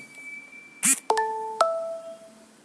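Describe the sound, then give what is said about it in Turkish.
A short electronic notification chime from a phone automation app rings out: a brief click followed by two quick tonal beeps with lingering ringing tails, clear, with no one talking. It is the first beep, after which the phone announces the time, battery percentage and battery temperature. “Ee, yani ilk bip sesi gerçekleştiriyor.”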